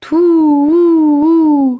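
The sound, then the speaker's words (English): A voice imitates an owl's hoot: one long, steady 'hoo' that swells gently three times before fading out. “As they moved on, they heard an owl hoot three times.”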